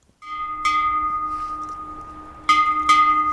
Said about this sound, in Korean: 아, 이 소리 친숙한 소리 아닙니까? 학교 종소리입니다. 오늘 보물소리입니다.